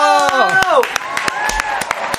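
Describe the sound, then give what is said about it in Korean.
Sharp hand claps ring out at an uneven pace while a few voices let out a loud, pitch-sliding cheer that gives way to a held, whooping tone, on the radio show Hello Mello, celebrating a listener's news that she is getting married at the end of October. “일단 저 박수부터 쳐주실래요?”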